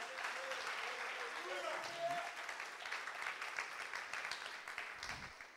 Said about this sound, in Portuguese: Aplauda o Senhor, dando júbilos ao Senhor.